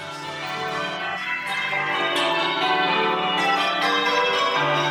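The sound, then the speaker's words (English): Church bells peal in English change ringing, with steady overlapping strikes forming a dense, continuous wash of ringing tones that stays loud and full throughout, with no voices. “It's a really particular style of bell ringing that developed in England sometime in the 17th century.”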